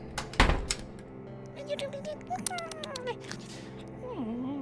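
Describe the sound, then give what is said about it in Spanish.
A door shuts with a single heavy, booming thud near the start, followed by warbling, meow-like cries and vocal sounds. “Seguro cerró la puerta.”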